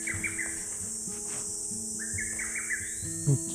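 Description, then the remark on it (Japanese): A wild bird calls nearby, seemingly right overhead, in two bursts of quick, stepped chirping notes, separated by a short pause, over a steady buzzing background of insects and low hum. “近くで鳴ってるな、でも。見れそうな感じもするけど。うん。ちょうどなんか真上ぐらいでなってそうな気がめっちゃするんだけどね”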